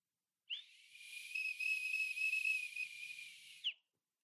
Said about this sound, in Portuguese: o apito fanho.